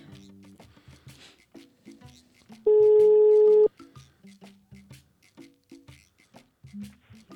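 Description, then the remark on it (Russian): A telephone ringback tone sounds once as a guest psychologist is being called: a single loud, steady mid-pitched beep lasting about a second, standing out above quieter, choppy background sounds before and after it. “Гудочек пошел.”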